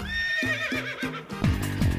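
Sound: horse neighing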